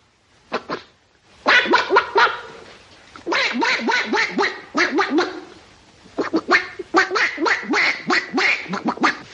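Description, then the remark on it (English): A man's voice imitates a duck, letting out rapid, nasal quacks in several quick bursts separated by short pauses, loud throughout. “Would you, would you like to hear old uncle make a noise like a duck?”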